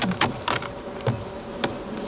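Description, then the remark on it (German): Honeybees buzz in a low, steady drone as a beekeeper opens a hive and looks inside, with sharp wooden clicks and knocks scattered over it; a few bees are already in the honey super. “Sie sehen, ein paar Bienen sind jetzt also hier im Honigraum schon drin.”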